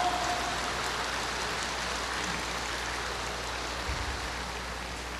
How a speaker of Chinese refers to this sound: 现在，让我们再次用最热烈的掌声，恭请上会下律长老。